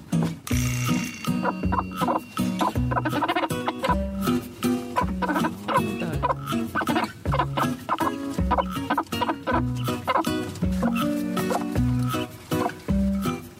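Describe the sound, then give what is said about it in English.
A hen clucks in rapid, rhythmic bursts, fairly loud, the repeated low clucks running continuously for over ten seconds as a food call to her chicks over a grain. “In chicken, this means look, I've got something nice for you. Like that's the noise that that little chicks respond to.”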